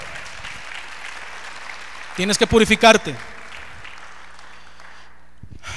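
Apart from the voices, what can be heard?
audience applauding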